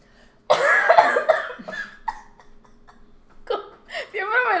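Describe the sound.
A woman coughs several times in a harsh burst from an itch in her throat, followed by scattered throaty sounds and bits of speech-like vocalizing.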